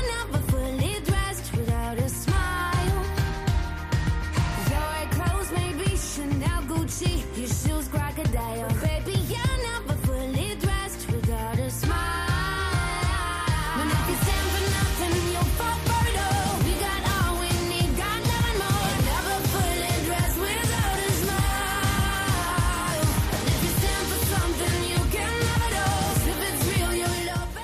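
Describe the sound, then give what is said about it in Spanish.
The third theme song of the radio programme La Hora Feliz plays at full, steady volume: busy, upbeat music with layered instruments and a bouncing rhythm, filling the whole stretch with no talking over it. “Y estamos escuchando esta canción que fue la tercera sintonía de La Hora Feliz.”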